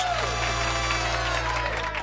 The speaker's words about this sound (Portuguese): Uma salva de palmas para elas.